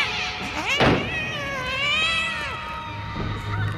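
A cat yowls in long, wavering howls, the pitch sliding up and down over several seconds, with a brief burst of noise partway through and a steady low hum underneath.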